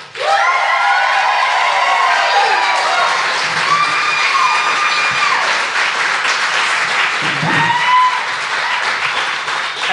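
A live audience breaks into loud, sustained applause with whoops and high-pitched cheers rising over the clapping, filling the room for about ten seconds before starting to fade.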